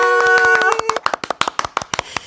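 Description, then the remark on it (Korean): A brief bright chime gives way to a quick, steady run of about a dozen sharp claps, evenly spaced and fairly loud, with no voices. “자, 박수도 치고, 예, 정답도 예, 말씀해 드렸습니다.”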